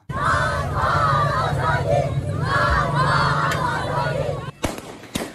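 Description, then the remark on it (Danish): A crowd of about 40 women protesting outside the education ministry in Kabul, Afghanistan, chants 'bread, work and freedom' loudly in unison, voices rising and falling in waves; near the end the chanting breaks off as several sharp bangs ring out, shots fired into the air by the Taliban. “Og Taliban slog hårdt ned på demonstrationerne, som man kan høre her, der blev skudt op i luften, og flere af kvinderne blev slået med geværkolber.”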